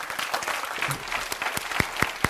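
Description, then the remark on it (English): A group of people clapping their hands together in response to a call to clap, a dense scattered burst of applause with a few sharper individual claps standing out near the end. “Come on, somebody, clap your hands, say amen, will you?”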